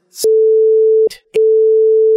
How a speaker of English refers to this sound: when I play it on the podcast, I'll bleep out my number so everybody can't just call me all the time.